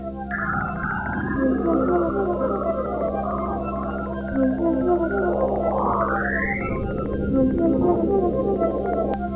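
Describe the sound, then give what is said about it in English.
An eerie NASA space recording of Saturn, all warbling whistles and sweeping tones with a rising glide midway, mixed with a steady droning theme music bed throughout, with a brief laugh. “You were just listening to a NASA clip off the top mixed with our theme. That's the sound of Saturn.”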